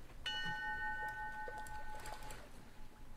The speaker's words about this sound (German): und geistesgegenwärtig fängt einer aus der Crew an die Schiffsglocke zu läuten.